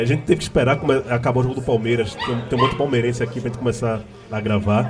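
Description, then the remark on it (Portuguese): A dog in a bar barks faintly in the background, a few scattered yaps buried beneath steady conversation between people talking over it. “Vocês estão ouvindo um cachorro ao fundo, tem cachorro no bar.”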